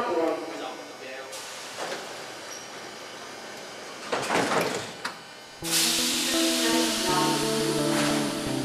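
Inside a subway station, a recorded announcement plays over steady rumbling platform noise, then a sudden loud burst of tones and hissing as the metro train doors slide shut.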